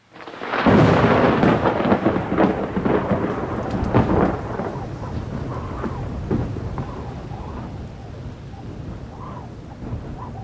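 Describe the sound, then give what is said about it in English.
A thunderstorm with steady rain on a cold, wet night in East Lansing, Michigan: a deep rumble of thunder rolls in early and loud, then fades into a continuous hiss of heavy rainfall with occasional crackles, no voices present. “Outside, the night was cold and wet, but a fire burned brightly in the small living room of the Kurian residence in East Lansing, Michigan.”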